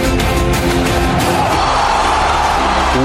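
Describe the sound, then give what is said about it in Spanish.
A loud, dense wall of crowd shouting and cheering fills the whole stretch, steady and unbroken, with music faintly underneath the roar. “se me encanta el público gritando.”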